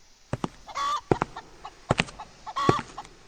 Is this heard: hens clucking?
yes